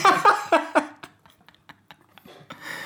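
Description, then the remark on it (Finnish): A person munching food: a few short voiced mouth sounds, then soft, irregular wet clicks and smacks of chewing, quiet and intermittent. “Tuo ja mä lopetan tämän mitun mussuttamisen.”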